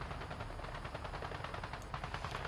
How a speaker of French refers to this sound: Mais des sons, des bruits de canon Gougou, gougou, gougou, gougou. Les gens tombaient comme des mouches.